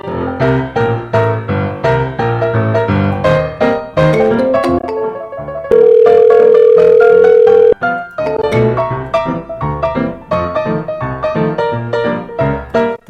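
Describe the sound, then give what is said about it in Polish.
A phone's ringing tone from a test call made through a green call button: one steady, unbroken electronic tone lasting about two seconds, cutting sharply into lively music that plays before and after it. No one speaks. “Tak, to był dźwięk dzwonienia do mnie, do mnie, żeby sprawdzić, czy da się zadzwonić przez zielony guziczek i coś tam działa.”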